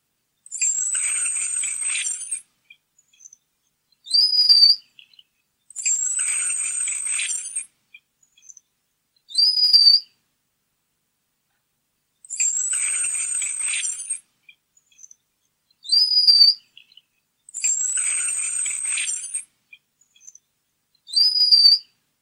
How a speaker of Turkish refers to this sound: Bir Çin masalına göre prenses aşık olmadığı biriyle zorla evlenmeyi reddediyor ve ne yazık ki ailesine utandırdığı gerekçesiyle babası tarafından nehirde boğularak öldürülüyor ve nehir Yunusu olarak dünyaya geri geliyor. Sizinle kulak verelim.